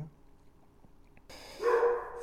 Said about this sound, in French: Oh, ça jappe.